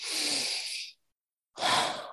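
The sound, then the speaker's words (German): A deep, airy breath during a guided exercise, a long whooshing exhale followed after a short pause by another shorter breath, with no talking. “Und dann kannst du wieder loslassen, kannst wieder atmen,”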